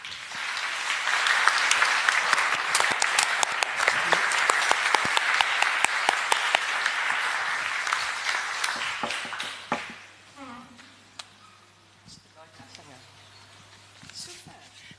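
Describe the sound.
An audience applauds introduced guests with dense, steady clapping for about ten seconds, then it fades quickly; scattered faint sounds and a voice follow in the quieter stretch.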